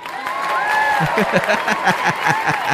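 A burst of applause from a small group, steady dense clapping with a few voices and cheers mixed in, lasting a few seconds.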